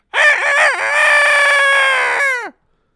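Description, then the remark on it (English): A woman's single loud voice imitates a rooster's crow at about 5:30 in the morning: a few choppy rising notes, then one long strained held cry that drops off sharply at the end. “This this nut's crowing like a rooster.”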